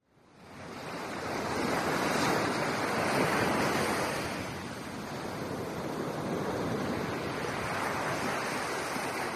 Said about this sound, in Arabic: رأت شاطئا وقت الغروب وسمعت صوت الرياح وهي تهب وسط أشجار الغابة